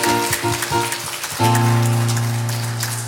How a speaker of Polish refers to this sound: Ja chciałabym Was prosić, Kościele, żebyś jeszcze, e, żebyście dali brawa dla tych młodych dziewczyn, które miały odwagę śpiewać z nami.